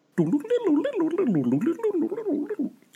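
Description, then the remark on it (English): A bubbly, distorted synth warbles and gurgles for a few seconds at the opening of a song on a cover album, its pitch sweeping up and down in quick wobbly waves, loud with no voices. “that flurry of random distorted sounds at the start is that synth or is that the drum machine?”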